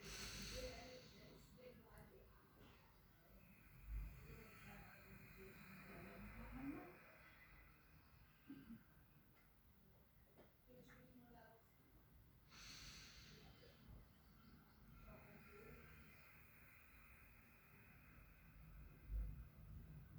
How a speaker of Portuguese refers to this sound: Fecha os olhos e fica. Assim mesmo. Ó, ó, olha bem como a respiração, ela é. Eu vou aproximar mais aqui de mim para você, para que você possa captar.